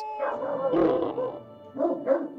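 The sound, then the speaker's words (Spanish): A large Spanish mastiff gives deep, drawn-out barks in two bouts, the first longer and the second shorter, fairly loud with no one talking. “Una de ellas sostiene que los perros molosos, y entre ellos el mastín español, proceden de un perro que habitó la región de Molosia,”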